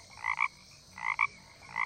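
A toad croaks in short, double-pulsed calls repeating at a steady rhythm, three bursts in under two seconds, clear with no voices around it.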